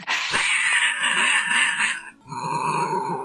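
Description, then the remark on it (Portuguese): A voice imitates a cat's meow with a long, drawn-out yowl followed by a shorter second cry after a brief pause, loud, with no talking around it. “o gato às vezes sacaneia também, que às vezes ele vira pro corredor escuro do nada e começa a fazer.”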